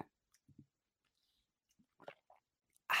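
Someone takes quiet sips of hot coffee: a few soft slurps and small mouth clicks amid silence, ending with a sudden louder burst of noise.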